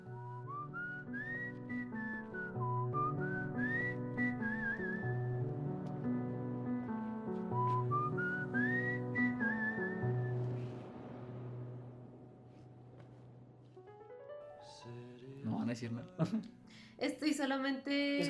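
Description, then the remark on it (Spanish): A gentle whistled melody opens a song, carrying the simple main theme over soft sustained accompaniment, rising in short phrases, then fading as brighter, busier sounds take over near the end. “Ah, me encanta que además empieza muy simple, ¿no? Con el silbidito.”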